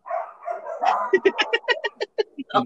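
A dog named Manzanita whines and growls briefly, then breaks into a rapid string of about ten sharp barks in quick succession, loud and insistent, with no one talking.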